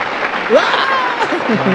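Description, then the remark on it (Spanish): A crowd claps steadily in a dense, sustained burst of applause to send off "the goose" (el ganso), with excited voices shouting and cheering over it throughout. “Vamos a despedir al ganso con un fuerte aplauso.”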